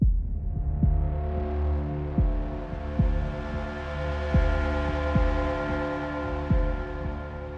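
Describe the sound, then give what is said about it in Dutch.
Theme music from the Batman video game Arkham Knight plays alone: a dense, ominous synth drone with a steady, heartbeat-like low thump pulsing roughly every second, loud, with no voices. “Hebben we een leader? Die komt uit, uit de een of andere Batman game.”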